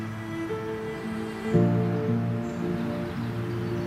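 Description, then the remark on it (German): A steady rushing wash of road traffic on National Road 13, heard at the German soldiers' cemetery of La Combe, with low droning engine tones rising and shifting slightly midway, continuous throughout and fairly faint, with no voices present. “Im Hintergrund hört man das Rauschen des Verkehrs auf der Nationalstraße 13.”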